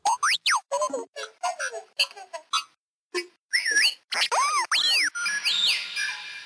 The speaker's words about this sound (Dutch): Want, dames en heren, ik heb één tromgeroffel nieuwe synthesizer gekocht. En wie niet weet hoe een synthesizer klinkt, het klinkt een beetje zo.